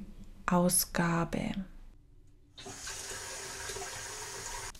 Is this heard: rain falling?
no